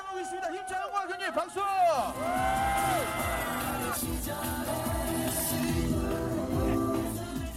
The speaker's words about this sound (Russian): Когда смельчаки входят в воду, все приветствуют их громкими возгласами и аплодисментами.